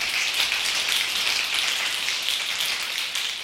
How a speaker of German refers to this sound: wenn der Regen heftiger wird, dann habe ich dann nochmal eine Schicht drüber gelegt